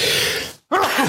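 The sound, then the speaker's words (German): A single loud sneeze bursts out as a breathy rush of noise, then a brief silence and a short voiced groan-like sound. “Oh, jetzt musste ich niesen, das tut mir ja leid.”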